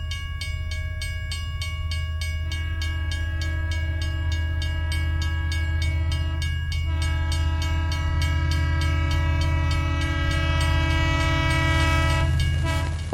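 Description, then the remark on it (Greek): A train rumbles steadily along the rails with a rhythmic clatter, while a long, loud, multi-tone horn blares over it for most of the time. No voices. “Ύστερα εκείνη η πρώτη νύχτα στο τρένο.”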